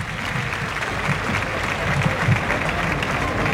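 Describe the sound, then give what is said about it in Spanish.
A large outdoor crowd at the Plaza de Toros bullring in Utrera applauds steadily in an ovation thanking the bullfighters for their effort, a dense wash of clapping with faint murmuring voices, sustained throughout without pause. “sonidos que nos llegan desde la Plaza de Toros de Utrera y la ovación del público agradeciendo el esfuerzo de los toreros.”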